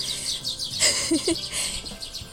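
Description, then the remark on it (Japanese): Several sparrows chirp busily and squabble outdoors on a cold morning, with short overlapping tweets and a few sharper calls in the middle, against steady background noise; no one speaks. “まあスズメがにぎやか”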